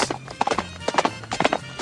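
Horse hooves trot in quick, rhythmic clip-clop clusters, moderately loud, repeating steadily for a couple of seconds with no one talking.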